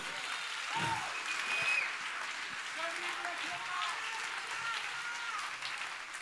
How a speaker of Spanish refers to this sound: Si tú lo crees, dale un aplauso